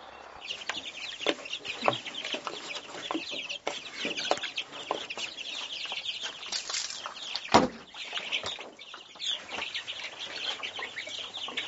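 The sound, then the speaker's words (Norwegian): Tiny quail chicks, hatched the day before, peep continuously, a dense chorus of thin, high chirps overlapping with no pause, broken once by a sharp knock or bump. “I går så klekka da vaktelkyllinger. De er ikke store.”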